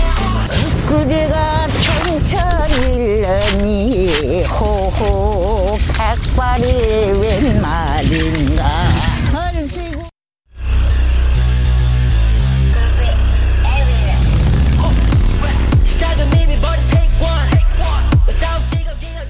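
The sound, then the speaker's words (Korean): A walking tractor engine chugs loudly and steadily after a brief pause, following a stretch of rhythmic hip-hop music with a sung or chanted vocal line; from a video of elderly people driving dozens of walking tractors across tidal mudflats in Seosan, South Korea. “이 할리 데이비슨을 능가하는 경운기의 엔진 소리 나의 심장이 살아난다.”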